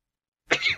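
sneeze

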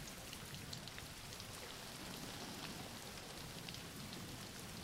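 rain falling

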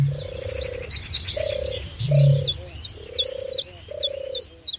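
birdsong

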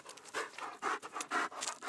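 dog panting

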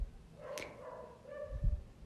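dogs barking and whimpering

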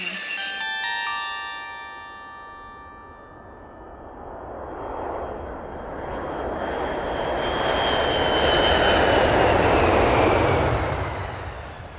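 airplane engine

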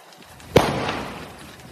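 gunshot

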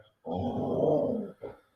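dog growling

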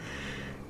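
dog snoring

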